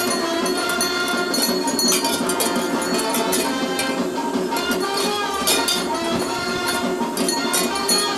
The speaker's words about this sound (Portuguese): Ó, oh, pronto esse maracatu. Dá pra ouvir os badalos, né?